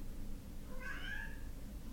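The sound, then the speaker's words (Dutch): A single drawn-out cat meow rises and falls for under a second, set against a steady low background rumble with no one talking. “poest in jou. Ik weet niet of je dat kunt horen”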